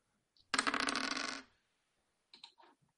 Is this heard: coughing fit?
no